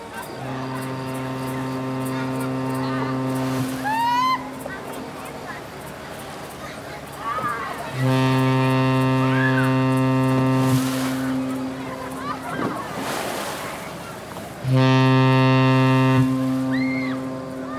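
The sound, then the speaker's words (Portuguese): A large boat approaching on a river, seen from far off in the early morning, sounds its horn: three long, deep, steady blasts, each lasting a few seconds and separated by pauses filled with faint, indistinct voices and ambient noise. “Até que um dia, de manhãzinha, Enquanto Jasmin e seus amigos brincavam na beira do rio, avistaram bem de longe um grande barco que se aproximava.”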